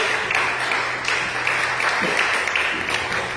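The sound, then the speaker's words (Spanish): Steady, dense applause from a standing church audience clapping for God as King, a continuous wash of many hands clapping at once, fairly loud and sustained without breaks, with a faint low hum underneath. “Póngase de pie y una fuerte palmas al Rey, por favor.”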